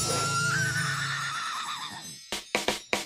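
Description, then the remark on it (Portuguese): A horse lowers its head to look down at a small piglet and lets out a long, loud whinny that wavers and trails downward, then gives a few short, sharp snorting bursts, with no voices. “O cavalo baixou a cabeça e olhou para baixo para o pequeno porquinho.”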